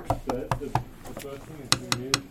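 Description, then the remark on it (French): A desk is tapped in short, sharp strikes: a few blunt palm slaps, then a brighter cluster of quick fingernail clicks, all fairly loud with a rhythmic, percussive feel. “Et ben si je sollicite cet instrument de musique avec ma paume, j'ai un certain son.”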